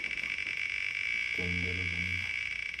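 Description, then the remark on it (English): A spinning wheel whirs with a rapid, steady ticking throughout. Partway through, a low buzzing, croak-like drone rises for about a second before fading. Nobody speaks. “It do got a weird sound when it's spinning.”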